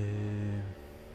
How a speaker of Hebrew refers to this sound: עולה פה אופנוע.